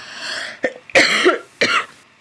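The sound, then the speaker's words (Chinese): A short burst of coughing: a quick, light cough followed by two harsher, fuller coughs with a brief pause between them. The coughs are rough and breathy, and no one speaks. “等一下，咳嗽。”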